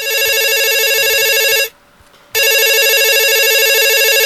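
A telephone rings loudly, two long electronic trills separated by a brief silence, with no one speaking.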